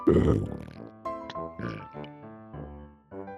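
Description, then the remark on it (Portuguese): A voice imitates a film zombie's growl drawn inward, a rough, guttural, pig-like snarl, starting loud and breaking into several choppy bursts over a few seconds. “Eu, eu, consigo, eu gosto de fazer aquele zumbi que ele faz pra dentro o som.”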